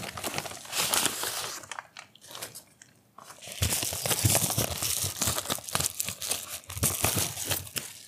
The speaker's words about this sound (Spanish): Si se escucha bien mi audio, acaban de, acaban de escuchar cómo saqué el libro de donde me lo dieron.